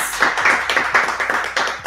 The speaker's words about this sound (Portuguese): Palmas!